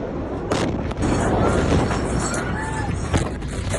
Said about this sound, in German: Dann knallt es auf einmal und ein riesiger weiß-roter Rauchpilz steigt in die Luft. Es sind gerade 2750 Tonnen Ammoniumnitrat in die Luft geflogen, das am Hafen gelagert wurde.